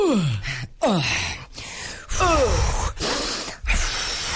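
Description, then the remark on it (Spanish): A voice imitates the heavy, labored panting of people exercising in a gym, several gasping breaths in a rough rhythm with strained, groan-like falling tones, loud. “Oigan, absténganse de estar Jadeando.”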